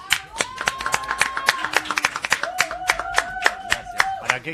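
Loud audience applause for Daniel Hendler, a dense run of sharp hand claps throughout, with a sustained voice cheering over the clapping in two long held tones.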